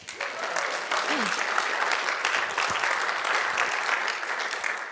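An audience at a Christian gathering claps steadily for several seconds to welcome a woman about to tell how she came to faith, a dense, even wash of many hands with no pauses, holding at a fairly loud level throughout.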